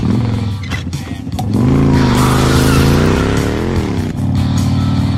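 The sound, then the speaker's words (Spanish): An air-cooled Harley-Davidson motorcycle engine with five gears and chain drive rumbles, then revs hard and loud, its throaty pitch climbing and dipping before settling back into a steady idle. No one speaks. “Eh, bueno, ¿cómo suena una Harley? Tenía cinco marchas, hemos dicho, transmisión por cadena, aire refrigerado por aire y lo que viene siendo una moto.”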